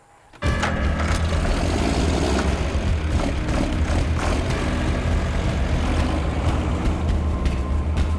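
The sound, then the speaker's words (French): The engine of a tractor unit pulling a semi-trailer, with seven or eight armed guards aboard, kicks in abruptly and runs loud and steady as it heads into the jungle: a deep rumbling drone with rattling and mechanical clatter throughout, with no voices. “mais pas avant d'avoir donné ses ordres à sept ou huit de ses gardes armés, qui montent aussitôt dans un semi-remorque tiré par un tracteur. Ils s'enfoncent dans la jungle.”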